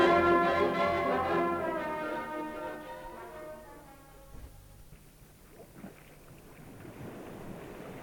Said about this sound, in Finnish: Yritän vain olla kuuntelematta tuota ääntä. Kuuletteko? Totta kai. Vesi tunkeutuu sisälle ruumaan.